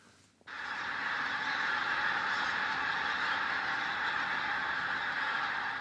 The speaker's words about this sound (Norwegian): Over 70 000 gjess mellomlander i disse dager på Innherred i Nord-Trøndelag.